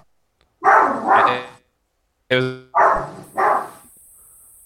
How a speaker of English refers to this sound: Uh-oh, got some doggos on the cast. Some, got, got, a dog.